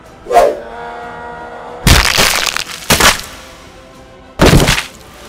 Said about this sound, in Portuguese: Ele mexe assim o bastão para defender, mas quando você dá uma, martelada, o bastão quebra E você vê por um instante a surpresa quando o seu martelo esmaga o olho dele.